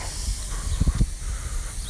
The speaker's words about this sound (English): I'm about to walk through some sprinklers again.